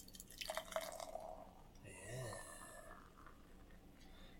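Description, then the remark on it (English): Beer pours from a can, with gurgling, glugging bursts and a fizzy splash building midway, then tapering into a soft hiss; no one speaks. “and the pour.”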